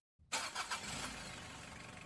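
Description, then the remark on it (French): A woman starts her car on a December winter morning at a country house in a village in Brittany, France: the engine cranks with a few quick starter pulses, then catches and settles into a steady idle rumble. “Elle attrape son manteau, claque la porte et démarre sa voiture comme tous les matins.”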